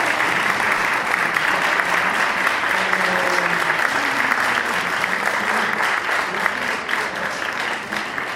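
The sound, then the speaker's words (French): Sustained audience applause for the person who made a film's 3D designs, a dense steady wash of many hands clapping at an even loudness for several seconds, with faint voices murmuring underneath. “C'est un mérite des applaudissements.”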